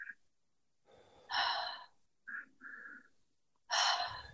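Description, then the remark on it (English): During a breathing exercise, two quick, sharp inhales through the nose, then a soft, gentle breathy exhale, and another strong sniffing inhale at the end; fairly loud, with no talking. “So breathing in through the nose for two and then exhale. Breathing in through your nose for two. Exhale. Gentle exhale.”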